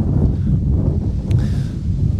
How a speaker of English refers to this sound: All right, I know it's really windy.